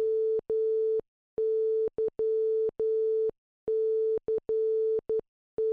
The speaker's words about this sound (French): Ça, ça voulait dire Mikos the Night en morse.